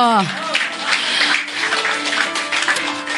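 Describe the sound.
The audience of GPI Kemah Pujian church breaks into steady, dense applause that carries through the whole stretch, with a voice calling out briefly at the very start and murmurs underneath.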